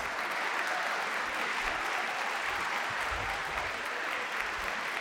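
Sustained audience applause, a dense steady wash of many hands clapping at even loudness for several seconds, with no voices standing out above it.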